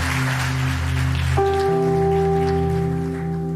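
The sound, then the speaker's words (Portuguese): A crowd claps steadily for the brothers on the last day, in a dense, rain-like patter while sustained keyboard chords hold underneath, the harmony shifting partway through. No one speaks. “Aí, vamos dar um salve de palmas aí, ó, para esse irmãos no último dia, apagado das luzes.”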